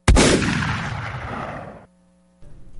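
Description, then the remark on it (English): A single loud gunshot cracks out and rolls away in a long, fading echo lasting over a second, followed by near silence and a faint low hum. “Was that it? The recording of the shot heard round the world?”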